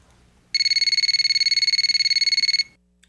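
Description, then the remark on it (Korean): A telephone rings at six in the morning with a rapid, steady electronic trill lasting about two seconds, loud, then stops, leaving a quiet background with a few faint clicks. “새벽 6시에 전화벨이 울리더군요.”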